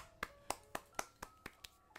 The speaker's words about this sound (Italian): Applauso.